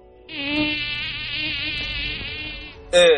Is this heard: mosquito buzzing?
yes